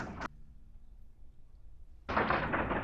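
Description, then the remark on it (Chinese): Firecrackers pop outside in a short harsh burst, then fall quiet for a moment before a dense, continuous crackling barrage starts up and keeps going, loud and rough, with no voices. “好，这个 今天要 今天你看到有听到鞭炮声，所以其实我们是同一天录的。”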